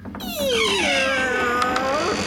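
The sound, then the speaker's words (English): A voice mimics the squeaky hinges of a thick door opening slowly, with one long, strained creak that slides down in pitch and then rises slightly, sustained and fairly loud for about two seconds. “Uh, I'm also curious why they've let these doors get so squeaky.”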